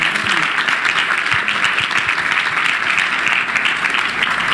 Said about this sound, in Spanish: le podemos dar un aplauso de ánimo, de honra.